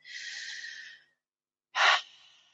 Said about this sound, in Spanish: el recurso, la respiración, tiene que ver con una respiración plena, profunda y que, que me lleve como a, a ese contacto de esa apertura a una respiración más parecida a la respiración que tenemos cuando tenemos de nacimiento, ¿no?